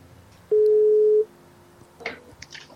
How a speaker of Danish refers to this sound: Nu prøver vi lige at ringe tilbage til vedkommende, der ringede op lige før. Ja. Skal vi prøve det?